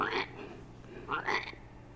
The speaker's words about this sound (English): perched on a box of Oreo cookies. Adorable but defiant. Norris, the frog.